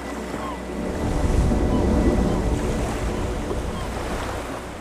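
Baltic Sea waves wash steadily onto a shore, a broad continuous surf swelling slightly in the middle, with some wind rumble over the microphone and no voices.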